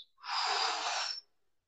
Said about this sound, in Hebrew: וקחו כמה נשימות עמוקות שוב פעם, הנשימות העמוקות שבהן אתם ממלאים את הריאות